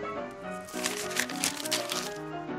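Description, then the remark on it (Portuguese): Crisp rustling of paper as a newspaper is picked up and handled, several dry crinkling bursts over a soft, steady musical tone in the background. “Pegue um jornal.”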